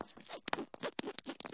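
Fingers scratch rapidly across the bedding of a bed in short, uneven bursts, a dry rustling scrape repeated about a dozen times with brief gaps, no voices present.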